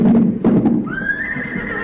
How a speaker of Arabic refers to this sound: وعما قليل يدنو من ننتظر انصتوا اني اسمع صوت خيل قادمه